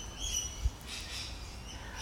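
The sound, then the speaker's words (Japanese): Faint birdsong outdoors on a fresh morning with clear blue sky in Australia: a few thin, high chirps at the start and end over a soft, steady background of wind rustling the trees and low rumble, with no one talking. “皆さん聞こえますでしょうかこの鳥の鳴き声いうと止まる何でしょうこの不思議な感覚 うんでもね朝起きたらね本当に鳥がね鳴いていて風が爽やかで空は真っ青でね”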